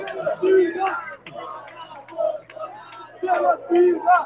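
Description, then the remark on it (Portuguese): A protest crowd in São Gonçalo, heading to the door of the city hall, chants "Fora Bolsonaro" and "genocida" in loud rhythmic bursts, many voices shouting together in repeated phrases with short pauses between them. “A galera tá gritando agora fora Bolsonaro.”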